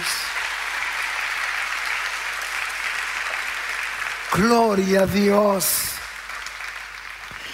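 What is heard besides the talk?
audience applause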